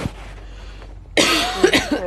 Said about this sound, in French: Pardon, j'ai pas exprès de tousser.